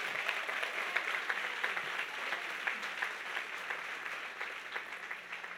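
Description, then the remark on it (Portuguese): An audience applauds steadily, a dense wash of many hands clapping at once that keeps an even level throughout without fading. “Pode aplaudir, porque Jesus é forte.”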